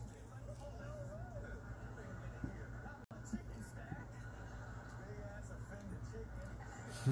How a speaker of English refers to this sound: yeah, the chicken's all offended.